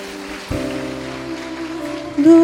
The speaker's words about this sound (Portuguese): Eu agradeço a minha oportunidade, que as suas palmas venham louvar e bendizer ao Senhor.